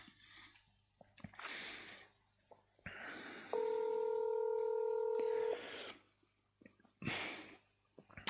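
A steady electronic telephone tone as a call is placed holds for about two seconds, loud, surrounded by short bursts of breathy noise and rustling, with no talking.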